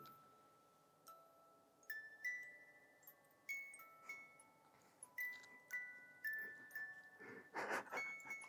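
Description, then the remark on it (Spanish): A small wooden music box, brought as a gift, plinks out a slow tinkling tune, each bright metallic note ringing briefly before the next, fairly quiet and steady, with no talking. “le voy a llevar esta cajita de madera”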